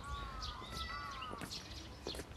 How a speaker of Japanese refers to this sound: めちゃくちゃ鳥が鳴いてるさあ登りましたどうよ小鳥すごいいっぱいいる